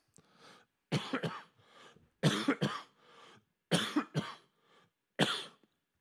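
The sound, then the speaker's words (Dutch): A person coughs repeatedly in harsh bursts, several clusters of two or three hacking coughs separated by brief pauses and soft breaths, with no talking. “Ja, er waren 3,5 hoesten op 5.”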